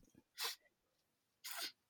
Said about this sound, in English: Sorry. Oh, what a weird sneeze.